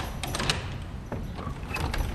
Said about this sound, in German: Auch eine Tür zu einem Palast kann quietschen, wenn auch nur leise.